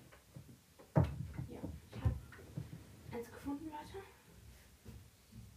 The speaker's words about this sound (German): Kurz Tür zu machen.